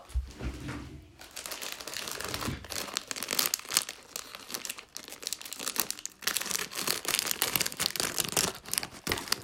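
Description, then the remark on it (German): A crinkly plastic chip package being crumpled and cut open with scissors, with steady rustling and sharp crackling snips, continuing for several seconds without any talking. “Die kriegt man nicht auf. Ich hole schnell die Schere.”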